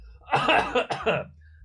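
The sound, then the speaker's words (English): A person coughs, a harsh run of two or three raspy bursts in quick succession, with no talking around them. “warning disclaimer: I cannot control this cough.”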